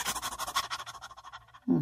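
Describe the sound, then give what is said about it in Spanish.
A person imitates panting with a rapid, steady run of short breathy huffs, fairly loud, fading gradually before a voice begins speaking at the very end. “La respiración es la que te lleva a contactar, pero la sexualidad es jadeada.”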